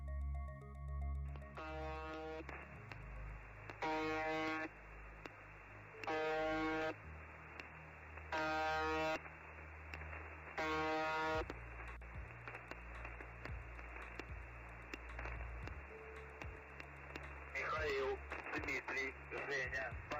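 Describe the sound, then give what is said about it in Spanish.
Shortwave radio station UVB-76, known as The Buzzer: five harsh, evenly spaced buzzing tones about two seconds apart, loud over a hissing, crackling radio static that continues with faint warbling interference afterward. “también tiene el misterio de la estación conocida como The Buzzer, eh, el zumbador, UB, UVB 76.”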